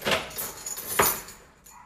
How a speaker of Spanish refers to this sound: Un momentito que voy a cerrar la puerta de casa porque, por si acaso, entran ladrones. Me gusta cerrar bien con llave la puerta de casa.